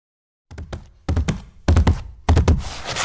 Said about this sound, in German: Ja, pass auf, die Top 3 der Irrtümer bezüglich Rüde und Hündin. Fahr ab den Jingle.